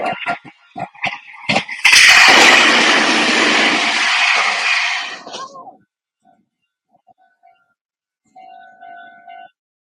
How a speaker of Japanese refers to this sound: 電車が来ます。来ました。